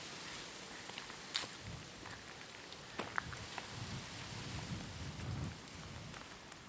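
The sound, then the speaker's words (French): Wind blowing through trees in a town in Brittany, France, on a sunny day: a steady, hissing rustle of leaves with low, rumbling gusts swelling now and then, plus a few faint clicks and snaps. No voices. “je vais profiter un peu aussi du souffle du vent dans les arbres là, et t'en faire profiter aussi.”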